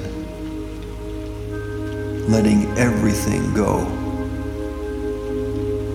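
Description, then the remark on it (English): Steady rain patters on a hard surface throughout, a constant soft hiss with a low hum beneath it, while a voice speaks briefly and calmly in the middle. “The rain is taking anything that you are willing to release.”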